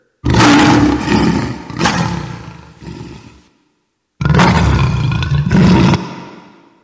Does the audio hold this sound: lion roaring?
yes